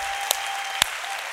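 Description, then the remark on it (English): A church audience applauds to give Jesus praise in a dense, steady wash of clapping, with a couple of sharper, louder claps standing out from the crowd. No voices are heard. “All right, of all the applause we've done, can we give Jesus the highest praise?”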